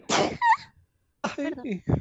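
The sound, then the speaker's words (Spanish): A single sharp sneeze bursts out with a brief vocal tail, then after a short silence someone starts talking or making voiced sounds. “Solo estornudé.”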